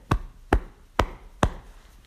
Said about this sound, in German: Auf die Schulter klopfen. Das meine ich mit feiern.